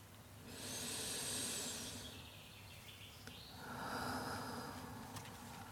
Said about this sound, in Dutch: Dit is een krachtige ademhaling, zo aan het begin van een nieuwe dag. En het zorgt ervoor dat je contact kan maken met jouw bron van energie. Je adem.